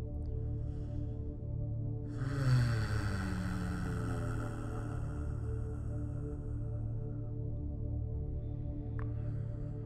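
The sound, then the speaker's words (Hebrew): A low, steady vocal hum, made on the exhale after a deep breath is taken and held in a breathing exercise, swells in after a couple of seconds and holds as one long sustained tone over a constant deep drone, fading only slightly toward the end. “ונוציא צליל של הנחה.”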